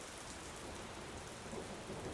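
Heavy rain pours in a steady, dense hiss while low thunder rumbles continuously underneath, with no voices present.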